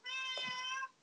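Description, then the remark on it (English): A single drawn-out meow from a female pet cat that has found its way into a room, high and tonal, held steady for almost a second before cutting off. It is clear, with no talking around it. “Oh, my kitty has managed to find her way into the room.”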